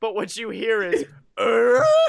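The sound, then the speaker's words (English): A man speaks briefly, pauses, then imitates Tim Taylor's grunt with a loud, drawn-out, throaty vocal sound lasting under a second. “it's as if a thousand grunting Tim Taylors grunted out at once and were suddenly silenced.”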